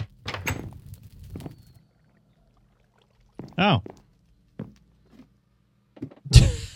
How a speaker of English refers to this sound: What? Y- you opened that door. Uh, maybe.